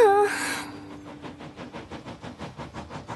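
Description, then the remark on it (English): A steam locomotive chuffs along the tracks toward the docks at a steady pace, its quick, even puffs repeating in a regular rhythm after a brief high-pitched tone at the start. “Emily was puffing towards the docks when she heard a familiar voice.”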